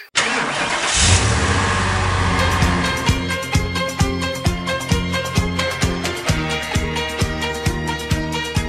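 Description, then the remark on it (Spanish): A car engine starts and revs loudly for a few seconds, then a rhythmic song with a steady beat takes over, the motor sound fading beneath it. “Venga, suba al coche.”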